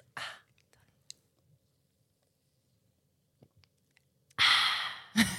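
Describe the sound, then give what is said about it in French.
A quiet sip of white peach seltzer from a freshly opened can, with faint swallowing clicks in near silence, followed by a loud, breathy, satisfied exhale. “Là, faut que tu prennes une gorgée, faut que ça.”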